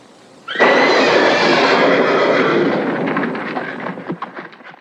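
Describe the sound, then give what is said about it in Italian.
A horse, frightened to death at the mention of Frau Blücher's name, whinnies loudly and shrilly, bursting in suddenly, with a rough, noisy wash around it that breaks into scattered clattering as the cry fades. No one speaks. “Sicuramente ricordavate tutti che ogni volta che veniva menzionato il nome di Frau Blücher, i cavalli nitrivano spaventati a morte.”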